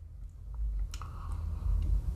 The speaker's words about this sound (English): I'm just going to take a sip of coffee.